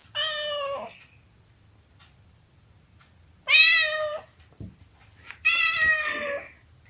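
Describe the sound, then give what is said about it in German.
The cat Lina meows three times, each call drawn out and rising in pitch, with short pauses in between and a faint low hum underneath; no one speaks. “Es kommt nicht so oft vor, dass eine Katze im Demobus mitfährt”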